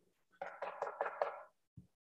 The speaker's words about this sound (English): the villagers, some of the male villagers, came knocking at the door, demanding that Lot send these two strangers out so that they may gang rape them.